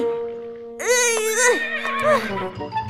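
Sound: horse whinnying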